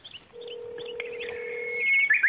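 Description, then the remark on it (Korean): A steady electronic telephone tone hums for over a second as a phone call to a VIP guest is attempted again, then gives way to a higher, brighter tone and a quick warbling beep, fairly loud and with no talking. “귀빈 연결 코너가 미리 약속을 해서 막 뭐 정확한 시간에 전화하겠다 이렇지 않기 때문에 오늘 조금 연결이 껄끄럽습니다만은 다시 한번 시도해 봅니다.”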